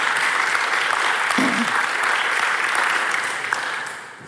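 A theatre audience applauds a stage production of Richard III with Lina Beckmann in the title role, a dense, steady wash of many hands clapping that holds at an even loudness for several seconds before easing off slightly at the end.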